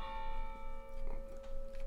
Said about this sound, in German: Das sind katholische Kirchen, da muss man sich auch gewöhnen, weil der, der Glockenrhythmus äh, zwischen Protestanten und Katholiken ist unterschiedlich.